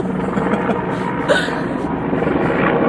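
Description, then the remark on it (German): A steady, fairly loud rotor drone of a helicopter overhead, its broad whooshing rumble holding constant for the whole stretch with no speech over it. “der Hubschrauber soll den jetzt mal durchlassen.”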